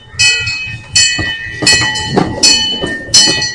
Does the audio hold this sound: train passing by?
yes